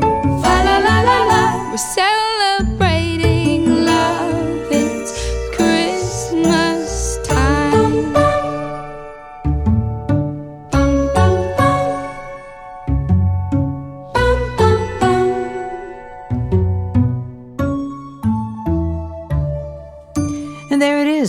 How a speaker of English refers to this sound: church bells chime.